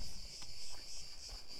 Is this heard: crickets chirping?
yes